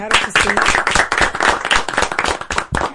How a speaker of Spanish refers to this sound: Así que un aplauso para el comandante.